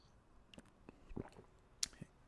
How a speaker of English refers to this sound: So, yeah, I'm gonna take a sip of coffee.